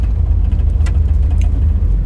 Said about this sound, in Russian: У меня такое ощущение, что что-то намерзло на машину и пытается отвалиться.